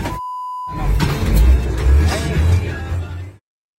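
A brief electronic beep, then a loud rumble of a car driving through toll barrier arms on route 27, with a few sharp knocks and cracks as an angry driver strikes and breaks two of the arms, recorded from inside the car.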